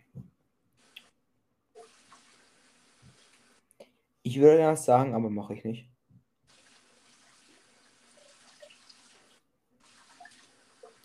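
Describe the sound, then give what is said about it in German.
Water runs faintly from a tap in the background, a soft, patchy trickle and splash that continues under a short burst of speech. “Währenddessen hören wir Wasser im Hintergrund.”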